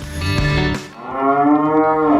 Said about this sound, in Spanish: Yo creo que esta vaca quiere decirnos algo, escuchemos.